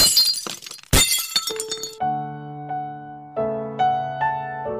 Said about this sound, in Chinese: 但玻璃发生碰撞时，只能碎裂吗？